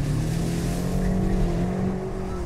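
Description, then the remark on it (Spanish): A sports car engine hums loudly and steadily, its low droning tone holding throughout with a slight strain as the car enters a corner and the driver begins to accelerate, with no voices. “Mira, yo entro en la curva y ahora comienzo a dar gas y mira.”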